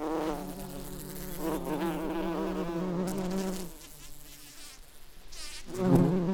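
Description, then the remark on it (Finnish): A bumblebee buzzes steadily, its low droning hum wavering in pitch, dipping quieter midway and then swelling louder again near the end. “Samoilla apajilla surraa vain yksi kilpailija, ja se on tarhakimalainen.”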